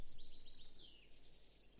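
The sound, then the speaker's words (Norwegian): Birds chirping in a rapid, high-pitched trilling twitter that carries on steadily throughout, fairly soft, with no voices. “Litt fuglekvitter og sånn.”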